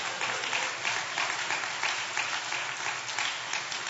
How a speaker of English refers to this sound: Come on, give the Lord a hand clap for that.